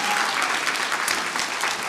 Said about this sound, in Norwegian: Nå kan dere klappe veldig mye.